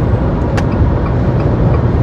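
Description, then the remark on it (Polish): Steady, loud road noise inside a car driving to Łódź: a continuous low rumble and hum with no talking, broken only by one brief faint tick partway through. “Nadaję w podróży. Jadę właśnie do Łodzi.”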